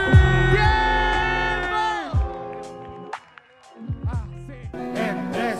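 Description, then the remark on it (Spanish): A crowd at a rap performance shouts and cheers loudly, many voices yelling together in long sustained bursts, briefly dropping off before the hollering surges back up near the end. “Así que quiero ese grito y un ruido para toda la gente también.”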